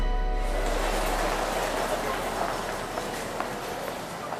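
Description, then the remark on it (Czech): Footsteps tap along a corridor of a main railway station toward a train that will soon depart heading east, a loose rhythm of light clicks set against a steady, echoing wash of station ambience and crowd murmur. “Procházím koridorem hlavního nádraží a nastupuji do vlaku, který se brzy rozjede směrem na východ.”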